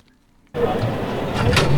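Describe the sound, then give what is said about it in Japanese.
After a brief quiet moment, a wheelchair seat clunks sharply into place as the wheelchair docks with a tilted bathtub, then only its upper section keeps sliding into the tub with a steady mechanical scraping and rumbling, with a few rattling bumps near the end. “今ガッチャん上の方だけスライドして入っています、そしたら足の方持っていただいてああ押したら入れるんですねはい”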